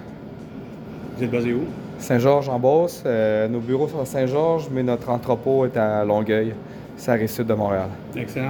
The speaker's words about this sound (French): By the way, avant qu'on commence cette entrevue, le bruit que vous entendez, parce qu'on était dans, à côté des cuves de Dieu du ciel à Montréal.